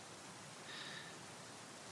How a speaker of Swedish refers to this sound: Det går knappt att andas utomhus för att det tar i och blåser ordentligt och regnet öser ner.